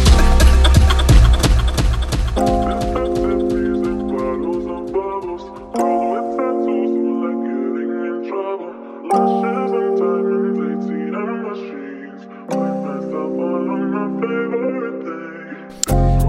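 A hip hop track plays loud and close, opening with a punchy, rapid beat over heavy bass before shifting into sustained synth chords that change in distinct blocks every few seconds.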